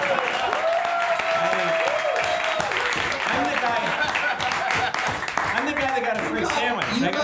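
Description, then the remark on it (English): Sustained audience applause as Cash Levy is introduced to the stage fills the whole stretch, a dense steady wash of many hands clapping at an even loudness, with some crowd voices and a brief tone mixed in early on. “it is a very sweet thing that you've been applauding for him so much”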